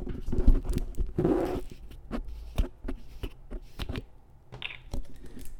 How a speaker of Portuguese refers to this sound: Bona fonte água leve. Ouça o barulho desta água abrindo aqui, ó.